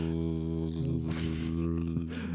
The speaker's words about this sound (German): dafür haben wir aber heute einen Special Guest noch mit am Start, nämlich in meiner Wohnung fliegt gerade eine Fliege rum, während wir hier diesen Podcast aufnehmen. Ich mm. hoffe, man, man hört sie nicht, aber.